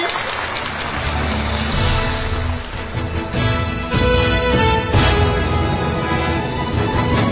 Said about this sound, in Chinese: 获得本届牡丹奖表演奖的得主上场。让我们再次用热烈的掌声向他们表示祝贺。